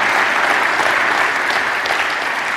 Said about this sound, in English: So, you know what? I want us to give a round of applause for Pastor Tom.